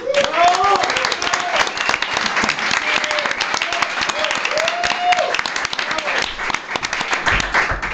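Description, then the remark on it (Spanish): Loud, sustained applause from an audience welcoming guest Pepe Colubi, author of the novels California 83 and Chorro Moco 91, fills the whole stretch, a dense rattle of many hands clapping, with cheering voices and a few whistles rising above it. “Un fuerte aplauso para recibir a Pepe Colubi.”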